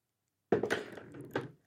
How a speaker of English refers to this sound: That's me dropping my pencil. I apologize.